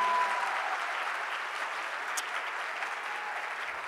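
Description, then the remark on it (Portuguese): Steady, sustained applause from a church audience clapping in praise of Jesus Christ, a dense wash of many hands clapping at an even loudness throughout, with no voices standing out. “Vamos lá, mais forte essas palmas a Jesus.”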